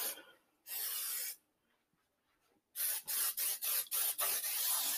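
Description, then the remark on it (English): A can of cooking spray hisses in a short burst onto a baking dish, pauses, then sprays in a rapid series of about six quick bursts, fairly loud, with no talking. “So, the first thing we're going to do is we're going to take our baking dish and you're going to get out your cooking spray and give it a good spray on the pan.”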